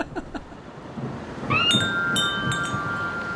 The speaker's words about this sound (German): Puh, na das war aber knapp. Es fängt jetzt richtig doll an zu regnen. Oh. Das wäre dem Schirm wirklich nicht gut bekommen.